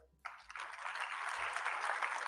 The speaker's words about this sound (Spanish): Muchas gracias por su trabajo, de verdad mi enorme reconocimiento y admiración. Quiero también un aplauso.